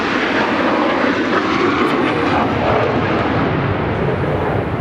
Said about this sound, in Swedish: Ja, nu hör vi dem. Nu hör vi planen. Nu är de rakt ovanför.